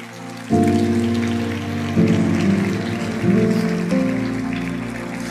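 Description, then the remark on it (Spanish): A church audience applauds God during a sermon, a dense wash of clapping that lasts several seconds over sustained keyboard chords shifting every second or so, with no voices. “Vamos a darle un aplauso a Él.”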